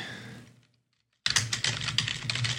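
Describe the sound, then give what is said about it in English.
Brisk typing on a computer keyboard, with rapid clicking keystrokes that fade out, pause briefly in near silence, then resume in a dense, steady burst. “can you hear me typing?”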